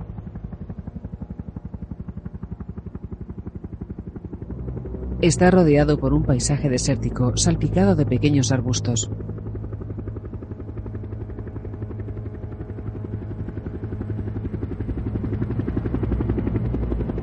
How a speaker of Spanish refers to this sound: Un helicóptero sobrevuela un barrio residencial.